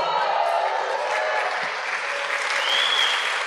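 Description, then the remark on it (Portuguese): A live audience of more than a thousand people in Taubaté applauds steadily at a world premiere, a dense wash of clapping at constant loudness, with faint cheers rising now and then through the roar. “Sente a energia aqui dessa galera. Mais de mil pessoas aqui em Taubaté na estreia mundial, sabendo que eu te amo.”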